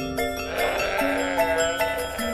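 lamb bleating

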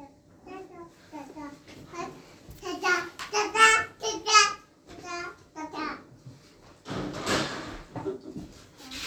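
young child babbling

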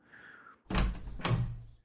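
door opening

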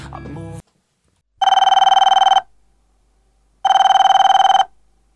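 telephone ringing

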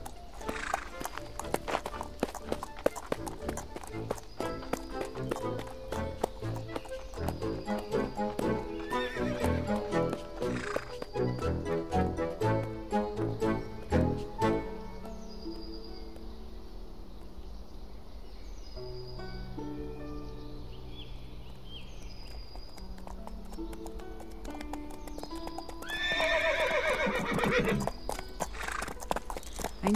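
horses trotting and neighing

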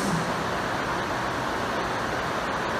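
rain falling

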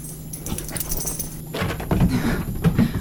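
dog whimpering and panting

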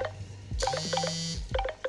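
incoming phone call ringing

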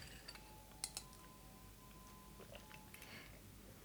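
glasses clinking

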